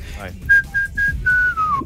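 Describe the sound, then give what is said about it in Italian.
Someone whistles a short tune, four clear notes with brief gaps, the last one held and sliding downward, over faint background murmur. “cioè, te ne fischietto una io, va.”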